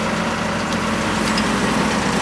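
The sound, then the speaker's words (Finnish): A car engine idles steadily, a continuous low rumble with a droning hum that holds at an even level throughout, with no one speaking over it. “Kuinka paljon tuo auto häiritsee podcastia?”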